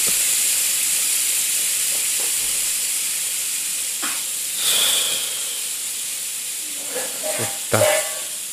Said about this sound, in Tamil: cooker whistle கண்டுபிடிச்சவன் எவன் கூட பேசி இருந்திருக்கலாம் போல்